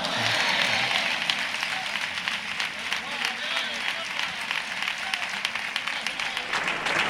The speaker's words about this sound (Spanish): ovación para el fundador de Amigos de Gine de Trista,